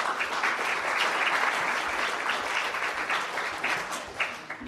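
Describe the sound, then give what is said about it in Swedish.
An audience claps steadily for several seconds, a dense crackle of many hands that stays fairly even and tapers off slightly toward the end. The applause is for five volunteers who have come to the front. “En applåd för våra volontärer.”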